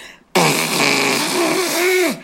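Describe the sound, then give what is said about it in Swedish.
A single loud, honking nose blow lasting nearly two seconds, starting abruptly with a rough, airy blast and a wavering nasal pitch that dips before it cuts off. “Nej men allt handlar väl liksom om, det är ungefär som om, om, om man är förkyld så, så behöver man snyta sig när man gör så här.”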